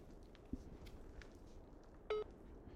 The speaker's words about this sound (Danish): Men jeg må prøve at se, om jeg kan nå at lave opkaldet til en kvinde. Jeg sætter højtaler på min telefon og ringer op.